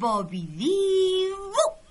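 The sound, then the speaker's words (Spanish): A dog gives a drawn-out, fairly loud whimpering whine. It starts low, slides up to a steady pitch, and ends with a brief higher yelp, with no talking. “Estos ratones serán los caballos y el perro será el cochero.”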